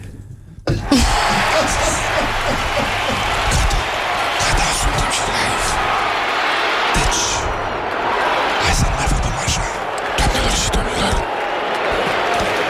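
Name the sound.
applause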